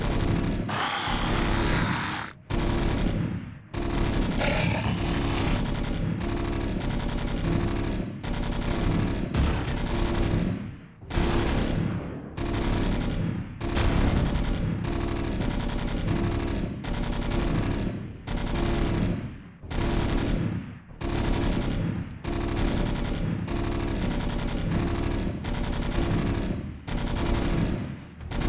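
A dense, continuous battle soundscape with rattling machine gun fire and heavy booms, loud, broken by a few brief pauses, with no talking.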